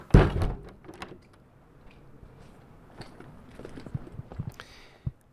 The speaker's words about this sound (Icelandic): Og þá er ekkit annað að gera en að ganga út, loka eftir sér og skell í lás.